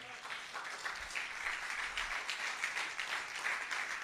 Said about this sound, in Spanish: un aplauso a Dios por ella.